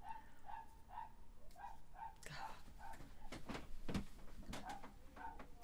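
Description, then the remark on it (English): A Jack Russell terrier yaps over and over in quick, steady, high-pitched barks, while a few thumps and faint background voices break in partway through. “They are a nightmare. Yeah. Jack Russell.”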